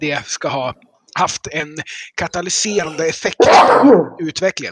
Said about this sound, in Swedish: Prosit! Tack, tack.